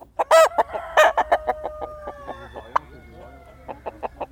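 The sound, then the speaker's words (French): A Gaulois breed rooster lets out loud, strained crows among rapid clucking from chickens, with a steady stream of short calls continuing to the end. “Mon premier coq gaulois, je l'ai acheté sur une exposition à Brienne-le-Château.”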